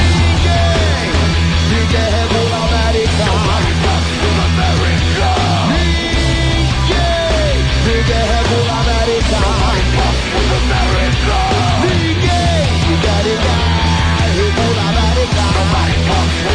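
A loud, dense rap-metal track plays continuously, with heavy pounding bass and drums, distorted guitars filling the mix, and shouted vocals riding on top throughout.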